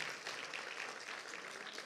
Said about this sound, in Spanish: ¿Cuántos le dan la bienvenida esta mañana? Démosle la bienvenida con un fuerte aplauso.